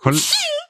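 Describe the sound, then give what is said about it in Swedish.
A single sharp sneeze that bursts out with a voiced, breathy sound and trails off quickly, with no talking around it. “Prosit!”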